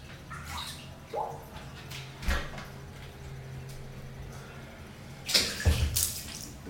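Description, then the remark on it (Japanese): Quiet, reverberant home bathroom ambience while someone bathes, with soft water splashes and trickles, punctuated by a few dull knocks from the wooden bathtub lid and a louder clatter near the end; no one speaks. “なんだお風呂からお送りしているってもう川端で頭おかしくなったんじゃないかっていうふうに思う人もいると思うんです”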